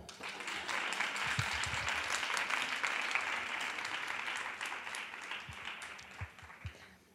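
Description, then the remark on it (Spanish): An audience breaks into sustained applause, a dense wash of many hands clapping at a steady loud level for about seven seconds before tapering off at the end. “Ahora, darle un aplauso.”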